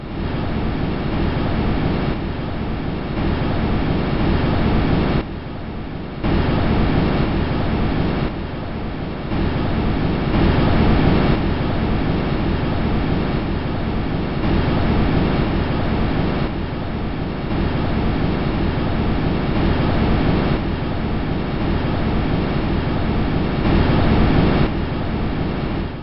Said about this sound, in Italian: nulla più che un microfono esposto al vento, ma se pensiamo che quel vento soffia su un mondo che si trova a un miliardo e mezzo di chilometri da noi, fa un certo effetto.